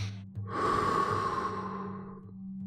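A single long, deep exhale follows a full breath into the belly and chest during a breathing exercise, a steady airy whoosh lasting about two seconds that slowly fades, with a faint low hum underneath and no talking.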